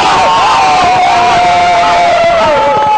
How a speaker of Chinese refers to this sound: 这样吧，大家如果同意我当咱村为民小组长的话，就鼓掌通过，鼓掌，鼓掌通过，鼓掌。哎呀！稀稀拉拉的，这掌声咋就不热烈？再来一遍！